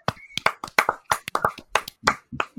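Hands clap quickly and unevenly, about a dozen sharp, close claps over a few seconds, like a small burst of applause, with no voices.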